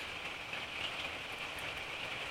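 Steady rain falls in a continuous, even hiss, moderately loud, with no voices and no clear breaks over the couple of seconds.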